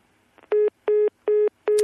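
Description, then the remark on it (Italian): Four short, identical telephone beeps sound at one steady pitch, evenly spaced, the tone of a phone line dropping during a call with Moises Naim, with no voices over them. “Caduta la linea con Moises Naim, allora ci affrettiamo a richiamarlo.”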